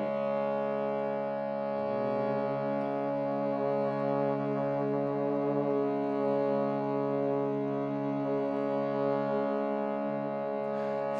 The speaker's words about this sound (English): Begin by adding humming to your exhalation.